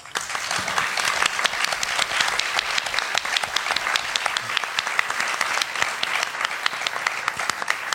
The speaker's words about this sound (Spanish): Sobre todo las gracias a los que se han quedado. Exactamente. Valientes. y a, a, la organización, bueno, pues que ha hecho posible que estemos aquí. Así que un aplauso también para ellos.